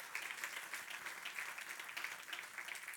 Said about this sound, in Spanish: Den un aplauso al Rey de Reyes y Señor de Señor.